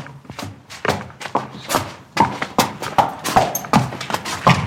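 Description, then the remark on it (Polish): Horse hooves clop on paving stones as the horse is walked toward an indoor riding arena at SGGW, in a steady walking rhythm, each hollow knock fairly loud with a slight scrape, continuing without pause and no voices. “Tutaj tupiemy sobie po kostce. Ja, może po, przy, po, po tutaj, jak, jak ten konik tupie”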